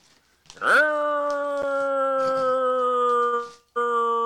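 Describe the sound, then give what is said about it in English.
A voice imitates a slow fire truck siren, sliding up into a loud, long, steady wail held for about three seconds, then breaking off and starting again briefly. “that's that slow fire truck uh, uh, sound that I'm really ah. familiar with.”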